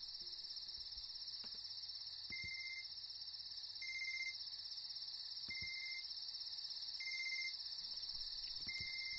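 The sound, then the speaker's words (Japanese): A phone rings with an incoming call from an unknown number: five short, evenly spaced electronic beeps at a mid-high pitch, heard over a steady, shrill insect-like buzz that continues throughout. No one speaks. “電話す。”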